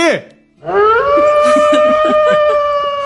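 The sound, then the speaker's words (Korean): A short, sharp yelp falls in pitch, then a long, steady howling wail rises and holds, a voice imitating a fox's cry, with bursts of laughter and chatter underneath. “이게, 이게 지금 늑대가 아니고 늑대 가 한테 여우 울음소리입니다.”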